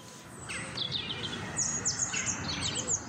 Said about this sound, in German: Wo genau ist der Punkt, bei dem das Vogelzwitschern im Park nicht unnatürlich schrill klingt, aber auch nicht unhörbar wird?